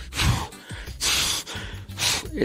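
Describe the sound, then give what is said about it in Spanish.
A voice demonstrates rapid, hurried gasping breaths: three quick, airy bursts of inhaling and exhaling in a steady, rushed rhythm, fairly loud, with no talking. “El, estar así de manera apresurada, respirando.”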